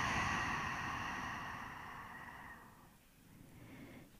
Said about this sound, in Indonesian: iya kita latihan duduk senyaman mungkin dipejamkan matanya ambil nafas panjang dari hidung buang nafas dari mulutnya